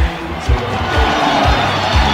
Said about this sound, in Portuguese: gol! Gol! João Paulo cobrando o pênalti camisa número 5, a camisa do sucesso. Olha a torcida enlouquecida aqui no café.